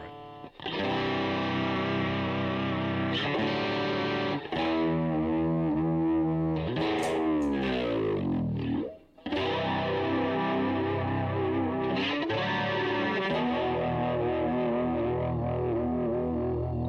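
A loud, distorted electric guitar plays sustained notes and chords through a delay effect, with a swooping downward pitch bend midway, a brief cutout, then the layered echoing playing resumes.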